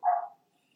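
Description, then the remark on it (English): A dog named Gucci gives a single short bark at its owner for attention, then quiet follows. No one speaks. “So actually, if you guys hear my dog, he's like literally barking at me because I am here and he wants my attention.”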